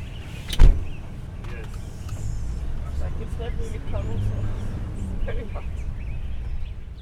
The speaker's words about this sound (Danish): På vej hjem i bilen